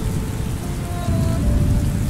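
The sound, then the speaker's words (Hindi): Heavy rain pours down steadily, a dense, continuous hiss and patter that stays loud and even throughout, with a faint low rumble underneath and no voices. “दोनों लोग साथ साथ घर जा रहे थे तभी जोरदार बारिश होने लगी”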